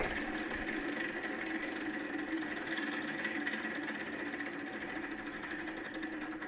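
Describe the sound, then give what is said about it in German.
A prize wheel spins with a steady, dense whirring rattle, its rapid ticks blurring together at an even level for several seconds with no one speaking. “Dazu ist das Glücksrad da.”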